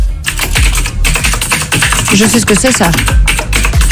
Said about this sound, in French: C'est un ordinateur Ouais, c'est un clavier. Elle nous dit c'était le bruit de mon clavier.